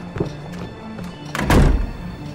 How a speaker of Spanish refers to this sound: Pero el futuro, al menos el inmediato, pintaba mejor cuando salí con un portazo del despacho de Edison.